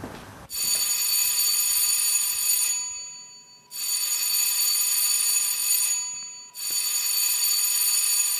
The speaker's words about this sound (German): Das war das dritte Klingelzeichen.